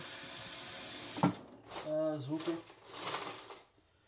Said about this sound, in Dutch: zei dat ik dat met eh, onderstromend water ging doen, dat ik dat tijdens het krabben moet laten lopen natuurlijk.